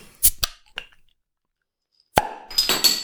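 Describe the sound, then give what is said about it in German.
A beer bottle is levered open with a lighter: a few sharp clicks and scrapes, a pause, then a crisp pop of the cap followed by a fizzing hiss, fairly loud. “Oh, das klingt stark nach ähm, Feuerzeug.”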